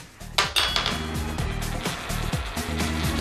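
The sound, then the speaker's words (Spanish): A coin is tossed for a contest and lands on tails, giving several bright metallic clinks and a short rattle over a steady low musical backing, with no one speaking. “lanzamos la moneda.”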